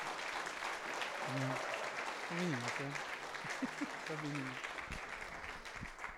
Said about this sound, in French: Est-ce qu'on peut les applaudir ce matin? Gloire à Dieu.